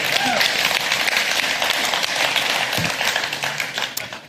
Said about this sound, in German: Können wir einen Applaus hier geben? Jawohl.